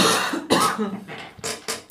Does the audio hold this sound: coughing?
yes